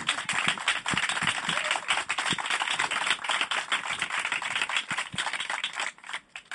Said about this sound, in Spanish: Eh, y por supuesto que este aplauso incipiente es vuestro.